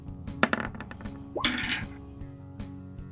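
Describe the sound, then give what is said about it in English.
A twenty-sided die clatters across a table in a quick burst of hard clicks, then rattles briefly before settling, with a faint tap afterward. “do me a favor and roll me a d20.”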